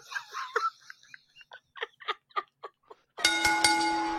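A few seconds of rhythmic laughing give way to a loud bell ringing out with a sustained metallic tone and several quick repeated strikes, continuing to the end.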